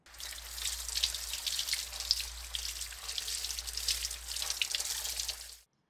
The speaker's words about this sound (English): In the garden, Agus's father washing his car using a hose.